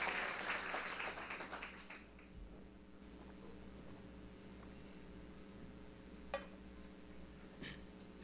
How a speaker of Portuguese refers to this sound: Será que você pode aplaudir Jesus? Fique em pé aí no seu lugar.